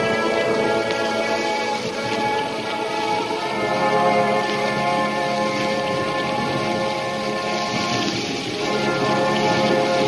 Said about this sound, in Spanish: Y entonces el trueno y el rayo hicieron estremecer la tierra.